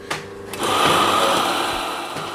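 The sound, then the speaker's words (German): In Bensheim, Murat Kaya makes himself an espresso on a portafilter espresso machine: two sharp clicks, then a loud, steady pump buzz with a hissing edge that drones on unbroken to the end, with no voices. “In Bensheim bereitet sich Murat Kaya selbst einen Espresso an der Siebträgermaschine zu.”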